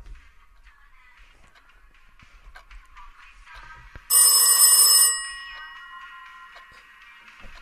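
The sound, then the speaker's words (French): A single loud burst of an old-fashioned telephone bell rings for about a second, then its metallic tone fades out, following a stretch of quiet faint background rustle. “Personne n'appelle en dehors de sa famille et de son travail. Personne n'a ce numéro.”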